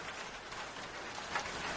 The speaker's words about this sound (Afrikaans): Dis weer winter in die plakkerskamp en uh uitdagings is groot. Ons is baie opgewonde vir die reën